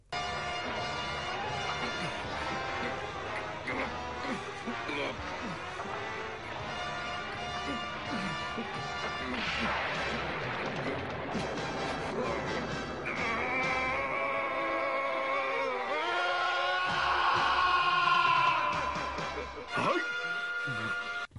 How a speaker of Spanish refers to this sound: hay un grito que a ver si lo voy a poner aquí, que es cuando se transforma en Super Saiyajin por primera vez. Mira, vamos vamos a escucharlo.